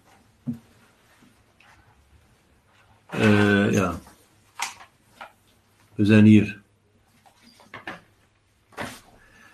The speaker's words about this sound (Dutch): Ah ja, ik moet de bladzijden omdraaien.